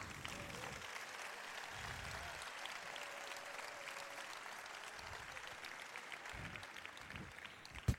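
Steady, dense audience applause for the Murga de Noalla group fills the whole stretch, many hands clapping at an even level with no break, ending in one sharp louder clap.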